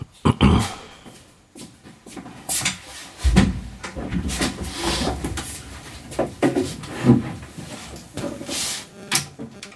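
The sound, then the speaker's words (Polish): Irregular scraping and shuffling noises, with repeated bumps and rubbing like furniture or objects being moved, loud and continuous with no speech. “A co ciekawe, szuranie słyszę bardzo wyraźne.”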